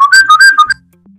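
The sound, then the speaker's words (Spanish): A person whistles a short, lively tune of several quick rising and falling notes, loud, ending abruptly after under a second into quiet background. “Y él dice, yo me quedo loco con el silbido.”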